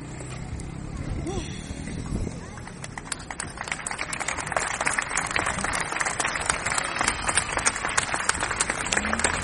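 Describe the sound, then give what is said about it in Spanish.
A crowd breaks into applause for a female speaker, many hands clapping in a dense, steady patter that builds after a brief moment of voices and continues without pause to the end. “Los aplausos para la ponente”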